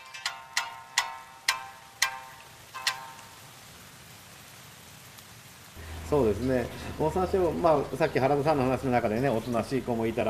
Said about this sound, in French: C'est reparti, on enfile une nouvelle fois la salopette, les bottes, le casque, on attrape les puisettes et la lampe torche, et on retourne patauger dans la rivière, de nuit et sous la pluie.